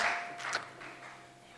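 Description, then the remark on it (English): A church audience claps their hands for Jesus while taking their seats at the start of a service, in a steady, dense wash of applause that stays fairly even throughout, with a faint ringing tone underneath. “Clap your hands for Jesus as you take your seats.”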